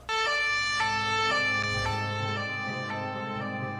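A police car siren blares loudly as the police car drives away, its steady wailing tone holding for several seconds over a low engine rumble, with no voices.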